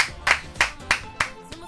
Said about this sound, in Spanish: Pues un aplauso para esta iniciativa.